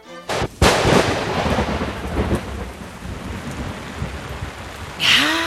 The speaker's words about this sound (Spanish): La tormenta seguía con más fuerza.